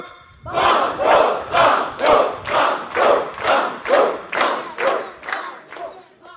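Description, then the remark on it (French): The audience of the radio game show Le jeu des 1000 shouts "Banco" together in rhythmic unison, about ten loud, evenly spaced chants repeated in a steady beat, energetic. “C'est Banco avec enthousiasme. Ouais, j'entends ça, super Enfin, super, peut-être tout à l'heure.”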